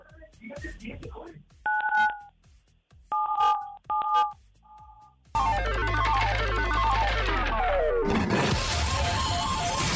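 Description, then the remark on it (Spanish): Four short telephone keypad tones beep one after another at an unhurried pace as a caller presses 977 on a phone. A loud, dense burst of roaring noise then swells up and fills the rest. “Entonces, presiona en tu teléfono el 977, corre.”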